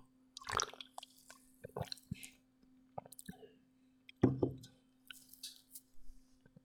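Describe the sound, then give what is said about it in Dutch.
Quiet sipping and swallowing sounds with small wet clicks and a slurp, a few soft mouth noises spread out over several seconds, with no talking, as someone takes a first sip of fruit punch from a can. “het belangrijkste is natuurlijk de eerste slok. Dus daar gaan we.”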